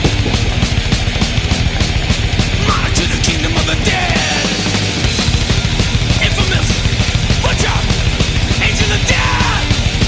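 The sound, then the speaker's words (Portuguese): A loud, busy intro jingle plays for the full ten seconds, with a driving beat, dense layered instruments and shouted vocals on top, all at high volume. “Toca a vinheta!”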